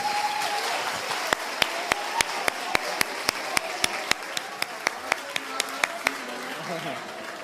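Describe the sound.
An audience applauds a person who came up first to collect an item, with a steady, rhythmic beat, about twenty sharp claps in unison ringing over a murmur of crowd voices, fading out near the end.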